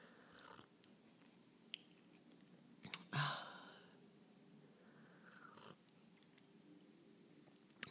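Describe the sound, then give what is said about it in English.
Quiet sipping of tea drunk in a ceremonial way in the morning: a few soft slurps and small mouth noises, with one louder sip in the middle, with no talking. “So I'm just going to take a few sips here.”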